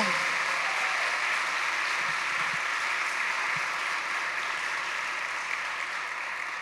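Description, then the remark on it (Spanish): Sustained applause from a crowd for the Lord Jesus after a prayer, a dense steady wash of clapping that stays loud and even for several seconds without any voices standing out. “Podemos darle el mejor de los aplausos al Señor Jesús. Fuerte ese aplauso.”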